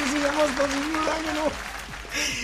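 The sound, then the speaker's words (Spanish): An audience claps for a man in dense, continuous applause, while a voice talks over it in the foreground. “Un aplauso para este señor.”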